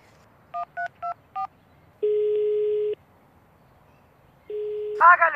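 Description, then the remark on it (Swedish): Four quick telephone keypad dialing beeps in an even rhythm as a call is placed to a sausage factory, followed by two long steady ringing tones on the line, and then a voice begins to answer. “Var la jag telefonen?”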